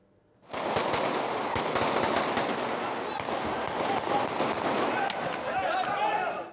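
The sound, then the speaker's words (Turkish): Police fire several sharp gunshots in quick succession over the loud, continuous roar of an angry shouting crowd during a street fight with stones and sticks between two groups in the Söğütlü neighbourhood of Iğdır, the bursts irregular and punchy against the dense noise. “Polis peş peşe silahını ateşledi.”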